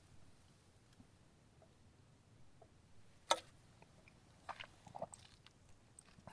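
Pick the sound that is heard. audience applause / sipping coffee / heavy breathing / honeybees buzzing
sipping coffee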